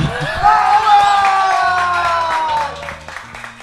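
A crowd applauds and cheers, with dense clapping, whoops and high whistles. The sound is loud at first, then gradually tapers off over a few seconds.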